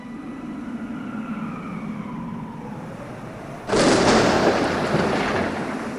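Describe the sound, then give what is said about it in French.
Super Typhoon Saomai making landfall in the city of Wenzhou, Zhejiang province, on 10 August 2006 roars with a deep, steady rumble and faint wavering tones in the background, then a sudden loud burst of heavy, wind-driven rain sweeps in and keeps pounding. No voices. “le 10 août 2006, le super typhon Saomai touche terre dans la ville de Wenzhou, dans la province du Zhejiang.”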